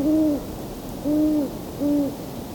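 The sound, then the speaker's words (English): Three steady, evenly spaced hoots from a male and a female owl, each a smooth, slightly wavering tone about half a second long, clear against a soft background hiss. “Some of the best hooting was during that chorus, coyotes, but I had to be facing the wrong way with the microphone.”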